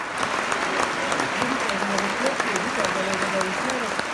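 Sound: applause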